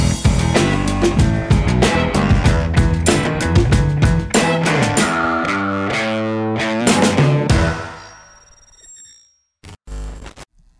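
A loud, dense stretch of music driven by heavily distorted guitar with steady drums, playing continuously for about eight seconds before fading out, followed by a short burst near the end.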